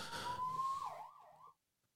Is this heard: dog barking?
no